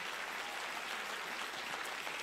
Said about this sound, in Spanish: Si le va a dar a Dios ese aplauso, ay, siento a mi Padre.